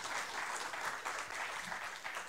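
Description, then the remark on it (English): A crowd claps steadily in a dense, even wash of applause that holds at a fairly constant level throughout, with no voices standing out above it. “Yes, I think it deserves a round of applause.”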